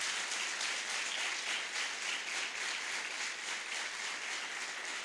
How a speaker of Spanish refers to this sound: Sí, Señor, dale un aplauso al Rey.